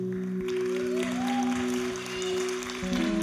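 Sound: audience applause and cheering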